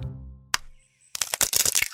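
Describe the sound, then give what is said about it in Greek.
Duck eggshells cracking open as the ducklings hatch: one sharp snap, then after a pause a quick, dense run of crisp, brittle crackles and small breaking sounds. There is no talking. “Επιτέλους έσπασε ένα κέλυφος και μετά ένα άλλο και από κάθε αυγό βγήκε ένα ζωντανό πλάσμα που σήκωσε το κεφαλάκι του”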